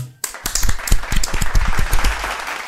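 A burst of applause from a small group, dense overlapping claps starting abruptly and continuing steadily at full strength, close and lively, with no one speaking.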